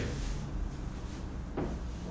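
A door shuts with a single short thud partway through, set against a steady hiss of room noise; no one speaks.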